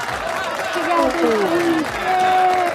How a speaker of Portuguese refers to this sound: Muito bem, seja bem-vindo a uma salva de palmas da pós-produção,